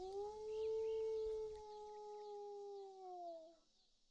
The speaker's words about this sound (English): Then, one night in late summer, when the tide was out and the salt marshes stunk in the still dark, a sound came echoing out of the trees and across the town. The sound of many dogs baying, a full throated sound beneath a fat orange moon.